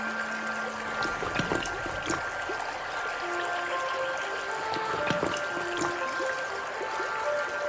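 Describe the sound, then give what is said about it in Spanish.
A steady, babbling stream flows continuously with bright splashing and gurgling, moderately loud, with a few higher tonal streaks drifting over the rushing water. “El zorro cruzó ríos y arroyos y bebió toda el agua que quiso.”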